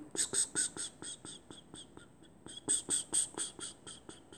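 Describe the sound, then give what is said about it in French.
Cicadas chirp in a fast, steady pulse of shrill buzzing, loud, briefly easing in the middle before surging back just as intensely. “Est-ce que les gens qui écoutent des cigales à longueur de journée ne pètent pas un câble C'est très énervant les cigales.”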